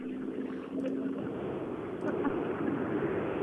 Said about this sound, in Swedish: Ja, det är en Subaru jag hör i skogen.